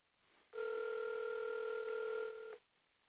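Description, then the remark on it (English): A single steady phone ringing tone of an outgoing call, heard through a line with a thin, telephone-like quality, holding for about two seconds before cutting off. No one speaks. “I don't even know why I'm calling this person.”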